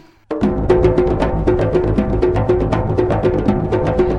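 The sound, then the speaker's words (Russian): A Georgian doli drum beats a quick, steady rhythm, loud, kicking in abruptly and carrying on alongside sustained melodic instruments in a lively folk tune. “И, конечно, доли.”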